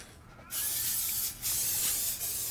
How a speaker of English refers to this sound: I'm thinking I need to oil it to make make it more successful for doing this. So I have canola spray.